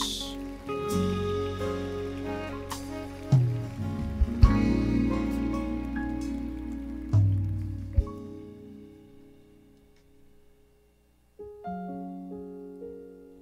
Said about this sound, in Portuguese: Vamos aplaudir Jesus.